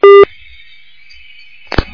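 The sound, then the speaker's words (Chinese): A telephone busy-line tone on a listener's call to a radio phone-in: one loud, steady, mid-pitched beep lasting about a quarter second, then a quiet stretch with a faint high hum, ending in a short burst and thump. No talking. “好，听众朋友们，那么可能他的刚才那个电话还在占线呢，所以下面那个电话要过大概十几秒才能打进来。”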